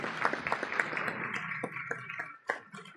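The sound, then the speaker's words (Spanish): An audience applauds: a dense, steady wash of many hands clapping, with a few sharper individual claps standing out, thinning slightly toward the end. No one speaks. “Bueno, después de, los aplausos eh, a los amigos”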